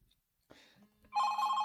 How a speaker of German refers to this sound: du hast eben noch gesagt, mach dein Handy aus. Und eigentlich habe ich es auch ausgemacht. aber wenn die Favoriten anrufen, dann klingelt es halt trotzdem.